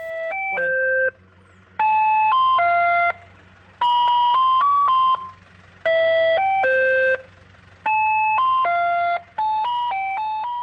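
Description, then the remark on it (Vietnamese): A bright, electronic ice cream cart jingle from a music player fitted to the cart plays a short chiming melody in repeated phrases with brief gaps, its beeping tones stepping up and down over a low steady hum, loud and without talk. “Ngoài ra thì nhiều người còn gắn cả máy phát nhạc, phát những đoạn rất là thu hút các bạn trẻ ngày nay.”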